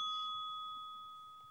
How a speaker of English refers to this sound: Turn notification bell on. Ding.